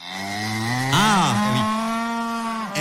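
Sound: cow mooing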